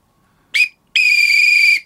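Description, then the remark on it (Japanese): An emergency whistle, kept attached to a key case, is blown twice: a short shrill blast, then a longer steady one lasting nearly a second, both loud and high-pitched with no talking. “僕はもう、なキーケースにつけてます、ね、ちょっと吹いてもらっていいですか せっかくだから。”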